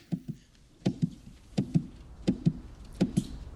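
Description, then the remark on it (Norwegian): A train on the Østfold Line railway passing, its wheels clacking over rail joints in steady double beats, about five pairs in quick succession over a low background rumble, with no voices. “Jeg elsker den lyden. Toget på Østfoldbanen.”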